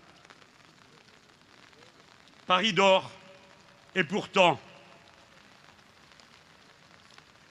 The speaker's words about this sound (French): il pleut. Comme aujourd'hui, il pleut interminablement.